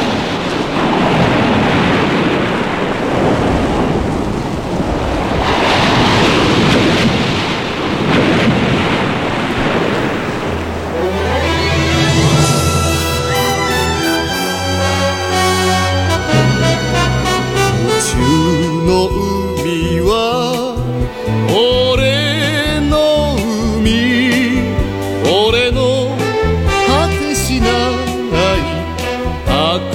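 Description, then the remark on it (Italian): Roaring ocean surf fills the opening seconds, then a Japanese anime opening theme song, the first Japanese opening of a classic cartoon series, bursts in with full band and a strong melody, playing loudly to the end. “la prima mitica opening giapponese di Capitan Arlo”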